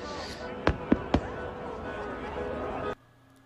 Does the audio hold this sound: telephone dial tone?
no